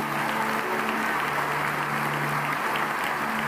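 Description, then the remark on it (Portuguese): Loud, sustained applause for the Lord from a crowd, a dense steady clatter of clapping hands that fills the whole clip without pause, with a faint low hum underneath. “Você pode dar um aplauso bem forte ao Senhor.”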